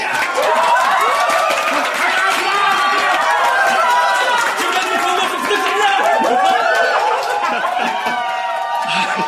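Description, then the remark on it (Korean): A large audience of members applauds and cheers loudly to welcome the regional branch head of the Gold Diamond New Network System, dense clapping mixed with whoops and shouting voices, sustained at a steady level for several seconds with no pauses. “자랑스러운 우리 지역의 지부장님을 큰 박수로 모시겠습니다.”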